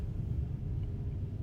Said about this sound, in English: That's a train outside.